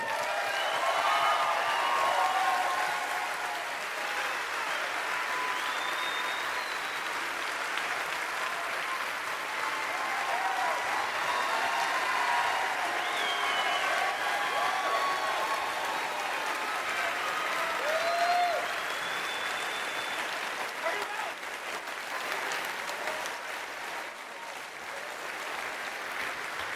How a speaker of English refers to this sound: I appreciate that you will all clap for me continuing to be poor.